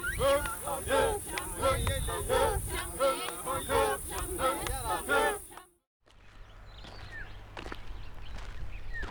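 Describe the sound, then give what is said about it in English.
Birds chirp in the trees on a very sunny morning at Ol Pejeta Conservancy, a dense, busy chorus of bright, repeated calls for several seconds, then a brief hush followed by a few faint, scattered chirps over a low steady hum. “It's a very sunny morning today, and the sun is high up, and the birds are chirping the trees.”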